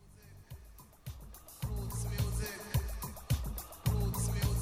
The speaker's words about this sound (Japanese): 水の音してますねしてますねさっき水の音があってねじまきさんおっしゃってたのこのことなのかな多分こっちのミックスの方ですかね